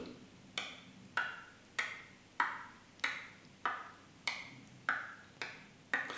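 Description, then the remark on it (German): A cuckoo clock ticks steadily, about ten even beats at roughly two per second, each a crisp click with a brief metallic ring, heard alone. “Achtung, die Kuckucksuhr.”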